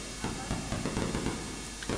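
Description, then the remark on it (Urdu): Wind buffets the microphone in a steady rumbling roar, with gusty swells pushing up every fraction of a second and no clear voices over it. “ہوا چل رہی نہیں اس میں جاتی اس لیے آواز ایسے آئی”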